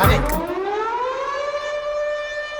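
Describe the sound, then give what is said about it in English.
A civil defense siren wails steadily after a brief noisy burst at the start, its harmonic tone slowly rising in pitch and holding loud and sustained with no voices. “When you hear that siren, what does that mean?”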